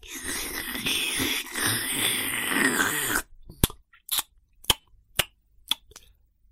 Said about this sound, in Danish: Der var ellers fuldstændig stillhed, men bedstemorens slubren kunne virkelig høres over det hele.